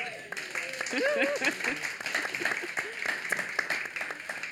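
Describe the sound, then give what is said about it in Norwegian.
A small audience applauds warmly, a steady patter of claps lasting a few seconds, with some voices and murmurs rising over the clapping near the start, welcoming an illustrator and author guest at a live recording of the show Svingens barnebokverden at Lillehammerfestivalen 2018. “En liten applaus.”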